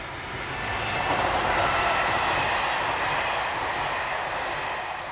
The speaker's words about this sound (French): C'est alors qu'elle l'entendit, strident, passer devant elle, le RER.